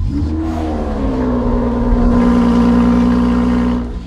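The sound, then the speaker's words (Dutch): A Lotus Emira sports car's combustion engine, started with the starter switch and heard at the exhausts, running loud and steady, its throaty drone climbing slightly in pitch as it revs and then holding, before easing off at the end. No one speaks. “Kijk, dat is het geluid nu van het... Ja, het lotus zoals we dat altijd gekend hebben. Hè? Het uh, eh, verbrandings, eh, verbrandingsmotorgeluid.”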